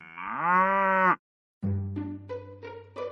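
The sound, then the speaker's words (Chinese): A dairy cow gives one loud, drawn-out moo that rises in pitch and then holds steady. A short silence follows, then a rougher, pulsing stretch of lower lowing over a steady hum. “圣诞节前一天的早上，奶牛洛特在挤奶的时候显得特别着急，有太多的事情等着他去做。”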